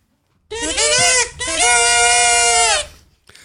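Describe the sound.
A single voice belts out a short fanfare in two loud, sustained phrases with a brief break between them, imitating trumpets with a bright, slightly bleating tone and no other sounds.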